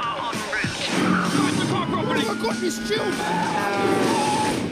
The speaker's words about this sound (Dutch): Komt er direct erna een fragment van een serie waarin iemand overreden wordt door een vrachtwagen.